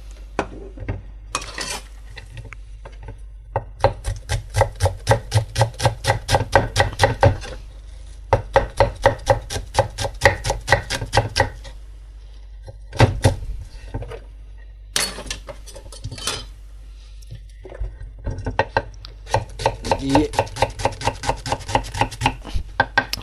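Rapid, steady knife chops on a cutting board as onions are diced, coming in several bursts of quick, even taps separated by short pauses, with no talking.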